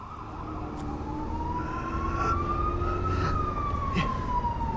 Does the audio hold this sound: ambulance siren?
yes